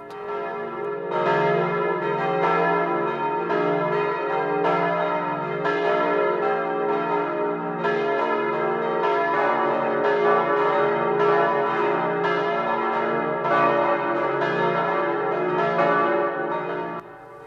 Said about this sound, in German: Es ist 12 Uhr. Das Mittagsläuten kommt heute aus Dießen am Ammersee.